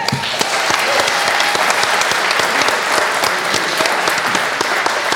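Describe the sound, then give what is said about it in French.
A crowd applauds a court bailiff being invited to join the hosts, steady and loud throughout, a dense wash of many hands clapping with no pauses, sustained for several seconds. “voulez-vous bien, voulez, vous bien euh, nous rejoindre pour nous aider à assister sous vos applaudissements”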